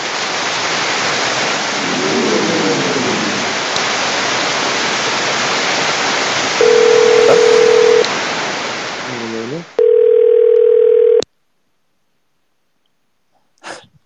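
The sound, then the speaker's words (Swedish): A loud wash of rushing, static-like noise is interrupted by a steady telephone dial tone that sounds briefly, then returns loud and clear for over a second before cutting to silence. “det skramlar jättemycket och ett telefonljud.”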